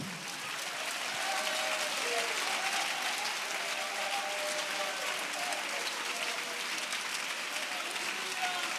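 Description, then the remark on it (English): An audience claps steadily and loudly, a dense continuous wash of many hands that fills the whole stretch, with a few faint voices calling out beneath it. “Come on, clap a little louder.”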